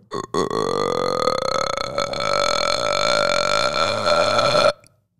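A Puerto Rican crested toad (sapo concho) gives one long, steady call, a buzzy, burp-like drone held for about four and a half seconds. It sounds loud, with no other sounds around it.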